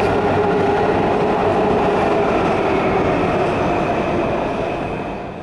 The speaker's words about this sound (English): Now, the train you're going to hear come through, that train is on the other track.